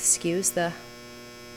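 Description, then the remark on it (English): A laundry machine runs with a steady low mechanical hum, droning on evenly, with a brief spoken phrase over it at the start before the hum continues alone. “laundry noise there.”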